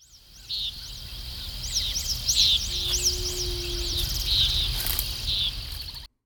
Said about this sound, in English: Now, what are crickets if not musical beetles?